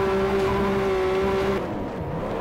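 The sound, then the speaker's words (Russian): A rear-wheel-drive race car's engine screams at high revs for over a second as the throttle is pressed in a corner. The note then abruptly breaks and drops into a rougher, sliding rumble as the car loses grip, with one wheel on asphalt and one on grass, and spins around. “В повороте нажал на газ. Вот. Если два колеса повело.”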